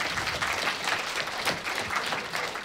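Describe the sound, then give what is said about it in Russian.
An audience at a forum talk on football and sport for blind athletes applauds a speaker steadily, dense overlapping claps forming a bright, continuous wash of sound at a fairly even level throughout, with no voices standing out. “Аплодисменты Дмитрию.”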